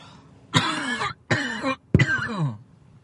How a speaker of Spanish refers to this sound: que no falte la tos. Voy a tener que empezar a grabar por la noche.